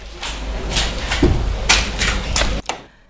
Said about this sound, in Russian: Потом решилась, тихонько прикрыла дверь и, дав волю пяткам, понеслась к Маше Нижней.